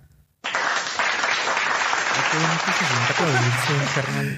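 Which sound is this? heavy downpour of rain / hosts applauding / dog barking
hosts applauding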